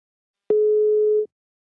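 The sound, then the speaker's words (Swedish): A single steady telephone ringing tone, one clean electronic beep lasting under a second, heard alone with silence before and after and no voices, as a call is placed to the company Invacare. “Nu tar vi en kort paus och ringer upp min samarbetspartner Invacare.”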